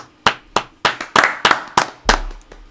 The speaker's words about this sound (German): Ja, Respekt. Respekt. Respekt. Respekt. Kleiner Applaus hier.